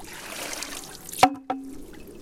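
Steady water trickles through a hollow bamboo pole of a Japanese garden water feature; the pole has a counterweight, and when the water overloads it, two sharp, hollow wooden knocks ring out about a quarter second apart, each leaving a short resonant tone before the trickle quietens.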